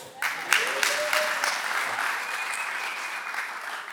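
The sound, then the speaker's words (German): An audience breaks into steady applause, a dense crackle of many hands clapping that swells quickly and holds at a fairly loud level, with a few faint whistles or cheers mixed in. “Großen Applaus, hey.”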